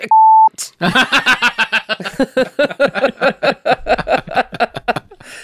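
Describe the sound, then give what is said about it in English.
A short, steady censor bleep tone covering a swear word sounds at the very start, about half a second long, then voices follow immediately, dense and animated, continuing to the end. “well, if you can bleep it, I can tell you one of the best lines I heard when I was at, I think it was Thorpe Park, where someone just shouted at their husband, "Oh, just get on the teacup!"”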